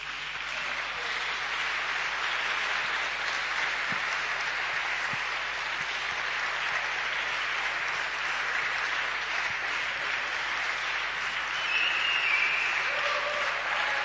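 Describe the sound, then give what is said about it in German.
Sustained audience applause as three people are called to the front to be given a gift, a dense steady wash of clapping hands lasting the whole stretch at even loudness, swelling slightly near the end, with no talking over it. “Ich möchte, dass ihr drei nach vorne kommt, ähm, ihr, ihr, ihnen einen herzlichen Applaus gebt und wir möchten sie kurz beschenken.”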